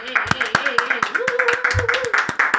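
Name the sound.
round of applause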